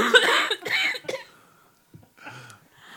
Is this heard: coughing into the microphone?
yes